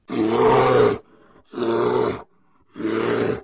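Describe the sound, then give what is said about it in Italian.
A bear roars three times in quick succession, each deep, rough bellow lasting under a second with short silent gaps between, loud, with no talking. “Questa puntata è dedicata a lui e a tutti gli altri orsi, che sono gli animali più amati e temuti, da sempre.”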